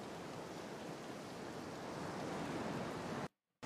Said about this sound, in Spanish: este de Scotland, que es en la costa del norte de, del continente, es un poco más, más lluvioso, más marítimo. Está en la costa, este es el mar. Y aquí hay sonido de olas, sonido de lluvia, sonidos... No sé si algún bicho también.